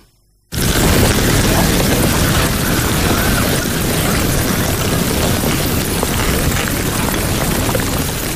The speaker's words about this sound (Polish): ten dźwięk, który słyszeliście przed chwilą jest dźwiękiem płynącej lawy z półwyspu Reykjanes